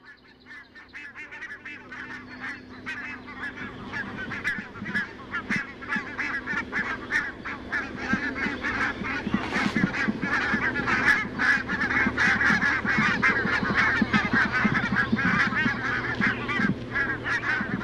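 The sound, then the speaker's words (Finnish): A migrating flock of about 70-80 barnacle geese flying over a city in Finland, heading northeast toward Novaya Zemlya, calling together: a dense, continuous chatter of overlapping yapping honks that swells steadily louder, with a low steady hum underneath. “tässä on siis parvi, joka on oikeasti matkalla Novea Tsemlialle tai tuonne pitkälle”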